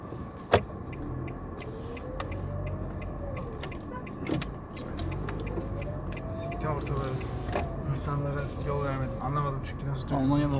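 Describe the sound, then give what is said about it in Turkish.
A car maneuvering into a parking spot: a steady low engine rumble with whining tones that rise and fall as it shifts, plus a few sharp clicks along the way. “Tamam. Yani şuraya park ediyorum.”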